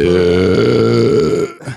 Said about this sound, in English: all right, first burp on the fucking uh, yeah.